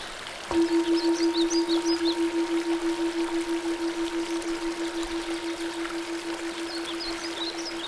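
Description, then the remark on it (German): A steady wash of flowing stream water runs throughout, gurgling here and there, while a sustained low humming tone enters early and lingers. Faint birds chirp at the start and end. “hier und da ein Gurgeln. Wasser, das sich völlig seiner Natur nach bewegt.”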